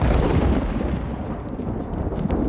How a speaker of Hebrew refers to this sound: מיד הבריק ברק, התגלגל רם, ומטר ירד על העולם.